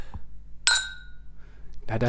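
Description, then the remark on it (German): A single bright glass clink rings out as glasses printed with Marc de Champagne Deutz are touched in a toast to 2021, its tone lingering briefly before fading, followed moments later by someone starting to speak. “Aber ja, wir stoßen mal an. Wir stoßen an. Auf 2021.”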